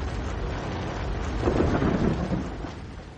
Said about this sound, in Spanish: Ya van dos días de lluvia.